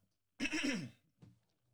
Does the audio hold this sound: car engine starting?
no